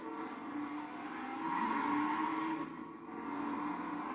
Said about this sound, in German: Alter. Nicer Drift.